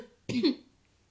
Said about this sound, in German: muss ich mal husten. Keine Ahnung, was ich gerade husten muss. Ja, genau, Leute, auf jeden Fall muss ich umhusten. Ich muss irgendwie husten, irgendwie husten.